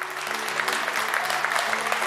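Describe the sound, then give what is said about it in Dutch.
An audience applauds Jesus in the morning, clapping steadily: a dense wash of many hands at an even, sustained level, with faint voices and a low hum beneath the clapping. “Zullen we Jezus gewoon een applaus geven vanmorgen?”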